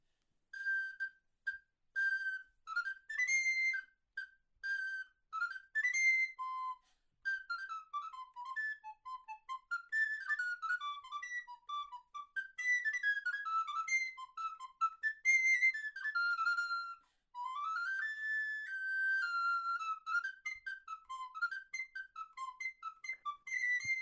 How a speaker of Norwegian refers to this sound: Eh, eller han kalte det flautino, da. Og eh, den betyr jo egentlig bare en liten sopran er en oktav lysere enn alt blokkføyta, som kanskje er den mest vanlige. Den høres litt sånn ut.